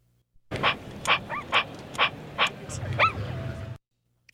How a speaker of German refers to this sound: Ich denke mal ein Hund, ein elektronischer Hund.